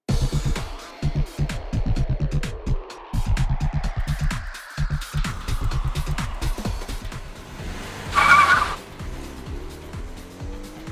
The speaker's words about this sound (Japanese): 片倉はそう言うとアクセルを踏んで勢いよく車を走らせた